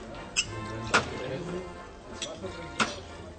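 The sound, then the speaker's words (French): Ambience in a village bar (Kneipe) with men sitting at the regulars' table: a low murmur of voices and a few sharp clinks and knocks of glasses and dishes scattered irregularly throughout. “Vous avez certainement entendu que … et … sont au bar du village.”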